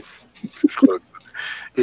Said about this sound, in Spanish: y, los perritos le ladran.